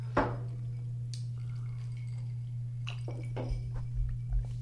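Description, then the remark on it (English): Glasses clink together in a toast, one sharp ring near the start followed by a few softer knocks and handling sounds, all over a steady low electrical hum with no talking. “uh, well, cheers to the weird shit that we cheers. figured out was actually the great shit.”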